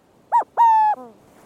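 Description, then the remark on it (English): A burrowing owl calls: a short tonal note, then a longer sustained, strained note that drops into a brief falling, fading tail. The calls are loud and clear with no talking. “Because, as well as its double hoots and other calls, the burrowing owl is known for this hair raising sound.”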